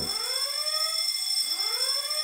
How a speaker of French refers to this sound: Soudain, la sirène retentit bruyamment. Smith vient d'être repéré.